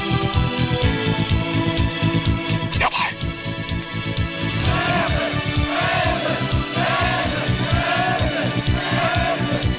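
A loud, dense crowd of spectators at a card game roars and cheers without letup, rising shouts and yelps overlapping in a continuous wash of excited voices with rhythmic bursts throughout.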